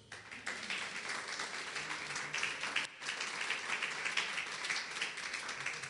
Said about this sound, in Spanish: ¿Por qué no te das un aplauso?